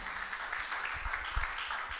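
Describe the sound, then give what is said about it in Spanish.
A crowd claps for the Lord together in steady, dense applause that holds at an even level for about two seconds, with no one speaking over it. “Grande es el Señor, aplaude al Señor porque nos deja todo en su palabra.”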